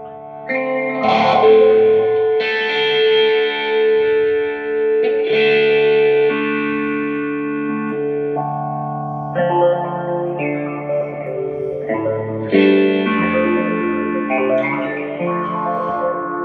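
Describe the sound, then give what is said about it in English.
Sustained electric guitar chords and notes run through an eight-step phaser with the depth turned all the way up and the rate slow, the tone swirling and shifting as each chord rings out clearly on its own, with no talking. “okay, so with phasers, there is like a four step, a six step. I got an eight step going right now.”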